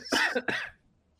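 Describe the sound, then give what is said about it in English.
Two quick, harsh coughs in close succession, fairly loud, with nothing else around them and quiet afterward. “yeah, that's makes you cough just thinking about it.”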